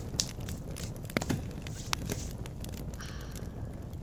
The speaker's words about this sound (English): It's a good fire. It's a nice one. It's crackling.